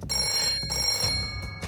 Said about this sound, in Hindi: 2 जुलाई उन्नीस रात करीब एक बजे दिल्ली के joint police commissioner Maxwell Perera के फोन की घंटी बजती है